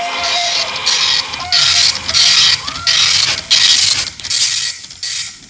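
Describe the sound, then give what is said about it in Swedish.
An old dot matrix printer works hard, its loud buzzing print-head passes coming in repeated bursts of roughly half a second, separated by brief clunking pauses as the carriage shifts. “Ja, det låter som en gammal skrivare som jobbar hårt. Matrisskrivare.”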